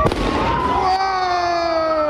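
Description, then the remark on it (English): A firework thrown by a crowd at a police patrol car during a street takeover in Texas goes off with a sharp bang, followed by a loud, shrill whistle that slowly drops in pitch over a steady wash of crowd noise. “Someone throws fireworks.”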